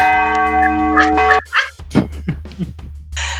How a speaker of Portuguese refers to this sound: Desculpa, o Sino tem vontade própria às vezes aqui. Ele realmente bateu.